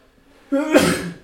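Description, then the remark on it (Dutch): A single fairly loud sneeze: a short voiced intake rises into a sharp, breathy burst that fades within about half a second. “Gezondheid, hè, je Dankjewel.”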